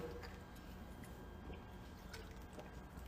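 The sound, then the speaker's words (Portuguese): Faint handling of a small water bottle being picked up: small scattered clicks and soft liquid sloshing over a steady low background hiss, with no one talking. “É, eu vou pegar minha garrafinha d'água um minutinho, um segundinho, E já voltei.”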